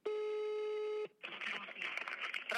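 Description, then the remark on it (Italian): A steady electronic telephone line tone sounds alone for about a second as a Posto Zero Radio host calls a number back after the line dropped, then cuts off and a thin, phone-filtered voice starts talking. “Richiamo subito perché qua dà delle soddisfazioni questo numero, me lo sento.”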